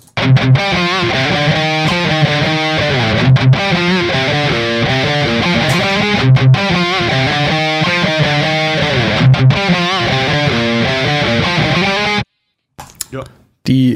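A loud, heavily distorted electric guitar riff, a recorded DI signal reamped through an Orange cabinet, with a thick, bass-heavy tone plays alone, chugging rhythmically with brief stops, then cuts off near the end with a short burst afterward.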